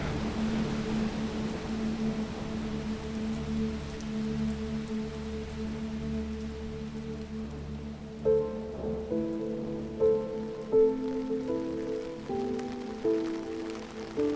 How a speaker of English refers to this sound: That night, I lay on my back, listening to the rain patter on the tent.